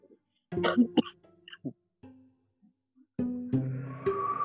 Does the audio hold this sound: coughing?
yes